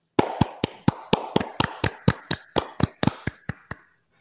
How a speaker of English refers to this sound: And let, let's clap it up one more time for her, actually.